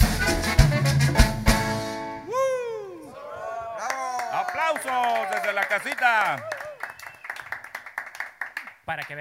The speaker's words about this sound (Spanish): Por eso escucharon los, ahí todos los aplausos de todo el staff. Excelente interpretación.